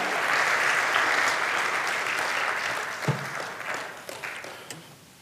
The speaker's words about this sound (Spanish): Puedes darle un fuerte aplauso a nuestro Dios, porque Él recuperó esa autoridad.